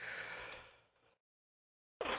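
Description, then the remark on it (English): A small, breathy cough lasting about a second, followed by a moment of silence and then another brief burst of throat noise. “Sorry, I a little cough.”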